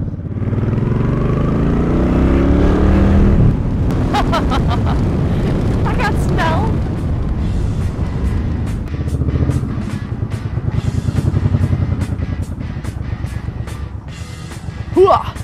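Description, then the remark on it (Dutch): A motorcycle engine runs loudly and steadily, its pitch climbing at first and then settling into a rough idle, with a few sharp clicks and voices faintly underneath. “heel lenig van de motor gekomen.”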